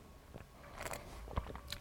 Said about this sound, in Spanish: Voy a darle un traguito a mi mojito.